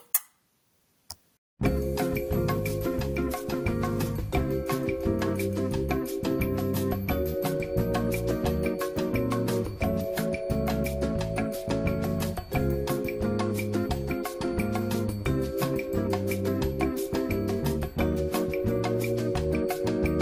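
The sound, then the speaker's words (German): After a brief moment of quiet, mellow instrumental elevator music plays steadily, with a soft ticking beat and gentle chords changing every few seconds. No one speaks. “Ich denke aber, die unsere Zuschauer haben Bock auf ein bisschen Fahrstuhlmusik an der Stelle.”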